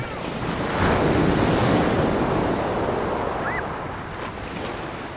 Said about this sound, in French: Nous nous plaçons à l'ombre et observons la danse apaisante de la mer